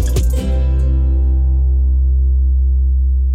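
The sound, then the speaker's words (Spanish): A loud, sustained electronic buzzer, 'la chicharra' signal of Radio Más, drones steadily for about three seconds, a harsh low hum rich in harmonics, preceded by a brief sharp burst at the start. “Tú sabes cuál es la señal que a ti te encanta. Hey, yeah, La chicharra ya se la sabe.”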